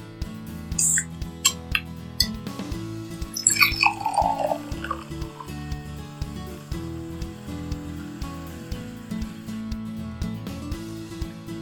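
A can of Echigo Beer's Always a Wit, a Belgian white beer from Niigata, Japan, pops open with a few sharp clicks and a brief hiss, then the beer glugs into a glass, its gurgle rising in pitch, over a steady low hum.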